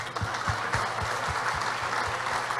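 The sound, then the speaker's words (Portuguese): A church audience claps steadily for its elders, a dense wash of many hands with a few louder individual claps punctuating the applause at a fairly even rhythm, with no voices. “Uma salva de palmas para os nossos anciãos.”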